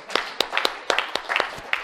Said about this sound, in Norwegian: Nå er jeg blitt bestefar. For tre uker siden. Yes! En liten applaus.